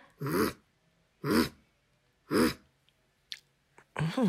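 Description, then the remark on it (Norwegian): A voice imitates a rabbit's growl with short, raspy grunting bursts repeated at a steady pace about a second apart, fairly loud, with a few small clicks between them. “Men jeg visste ikke at, det, at ei kanin kunne knurre heller.”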